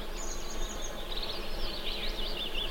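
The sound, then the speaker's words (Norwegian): Migratory birds returning in spring sing, a thin high whistle followed by busy warbling trills that rise and fall continuously, over a steady low outdoor rumble. “Et av de sikreste vårtegnene er trekkfuglene, som nå er i ferd med å komme tilbake.”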